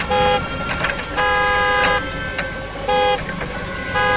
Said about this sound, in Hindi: तेजी से साइकिल चलाता मनोहर आगे निकल करके करीबन 25-30 मीटर ही गया होगा कि उस कार का हॉर्न ऐसे बजा जैसे कोई अंदर बैठकर बजा रहा हो